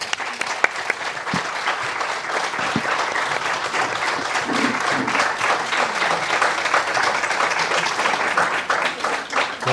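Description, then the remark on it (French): Sustained applause from an audience, a dense, steady wash of many hands clapping at an even loudness for the whole stretch, with no voices breaking through. “Euh, voilà, on peut, on peut les applaudir.”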